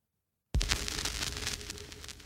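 After a brief silence, an old crank-wound wooden gramophone with a large horn starts playing a record in a dining room: steady surface hiss peppered with irregular pops and crackles, moderately loud, with no voices.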